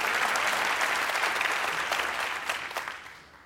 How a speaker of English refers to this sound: Yeah, clap for that. Clap for that.